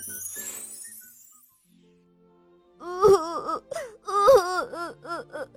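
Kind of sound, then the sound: sound effect, young dinosaur crying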